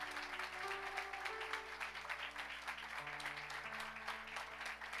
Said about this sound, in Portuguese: E nós aplaudimos ao Senhor porque Ele é bom.